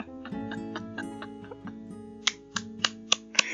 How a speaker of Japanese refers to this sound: いや、拍手。アップルポッドキャストデビューしてました。いや、これね、なんで拍手してるかっていうと、理由が実はあって